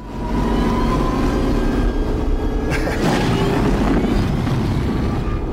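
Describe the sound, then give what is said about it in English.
A heavy armored vehicle's engine rumbles deep and loud, steady for the whole stretch, with a brief harsher metallic burst partway through. No one speaks. “The sound design in yes. that the the way it just like rumbles uh-huh.”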